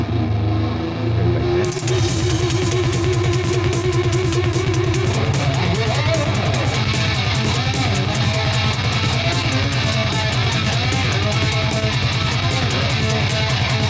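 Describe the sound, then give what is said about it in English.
A loud, dense rock track, track number three, where an electric guitar's Steinberger tremolo bar makes the pitch waver and dip over steady drums and bass, with no voices, continuing throughout. “It's a Steinberger tremolo sound.”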